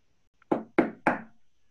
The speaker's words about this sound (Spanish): El coyote se había comido a la gallina cuando ya estaba terminando, que tocan a la puerta.